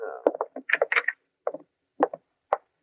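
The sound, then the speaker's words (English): A door leading into a den opens with a creaking, groaning swing and a cluster of wooden clunks, followed by a few sharp knocks spaced out in the quiet that follows. “right through this door.”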